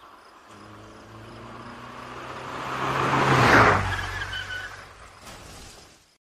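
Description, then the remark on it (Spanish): A car approaches and passes in front of a park, its engine and tire noise swelling to a peak midway before fading away. No one speaks. “Ya van varios días donde el mismo carro pasa frente al parque, pero no sube ninguna mujer.”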